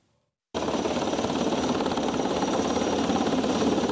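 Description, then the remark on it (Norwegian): After a brief moment of quiet, a loud helicopter suddenly roars in, its rotor beating in a rapid, steady chop over a dense engine whine that continues without letup; the helicopter is carrying two injured Israeli soldiers to hospital in Israel. “Et helikopter frakter to skadede israelske soldater til sykehus.”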